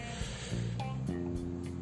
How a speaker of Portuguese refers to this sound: Bom, vocês vão ouvir barulho de carro, outras outros barulhos aí de fundo.